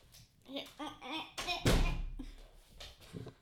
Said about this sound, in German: Das war das Geräusch, wenn ich die Tür zumache mit einem Fuß.